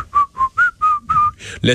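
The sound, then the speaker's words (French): A person whistles a short, nonchalant tune of about six evenly spaced notes, fairly loud, ending in a breathy burst of sound. “tu sais le monde entier regardait ailleurs en sifflant”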